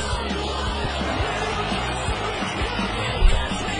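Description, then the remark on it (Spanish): A crowd claps and cheers steadily throughout to welcome a guest, a dense wash of applause with scattered yells and whoops, and one louder burst of shouting near the end. “Fuerte los aplausos.”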